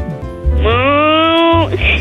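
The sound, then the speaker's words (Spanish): A child's voice imitates a cow mooing when asked to: one drawn-out, slightly rising call lasting about a second, fairly loud, with brief low background noise before and after. “¿Puedes hacer el ruido de una vaca?”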